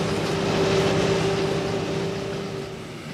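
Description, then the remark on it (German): A runaway railway car that has jumped a derailing shoe rolls steadily along track 3 of the main line, a loud continuous rumble with a sustained metallic whine running through it, easing off slightly toward the end. No voices. “Sie muss den Schuh übersprungen haben. Dann rollt ihr jetzt auf Gleis 3 der Hauptstrecke.”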